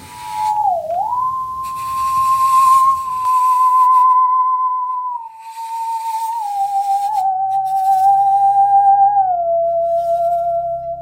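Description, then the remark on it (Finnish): A piece of saw metal left vibrating on its own sings one long, pure, fairly loud tone that wavers briefly at the start, holds steady, then slides slightly lower toward the end. No one talks. “Se on, niin kuin, tämä on tämmöinen sahametalli on semmoinen, että se jää värisemään niin kuin itsekseen.”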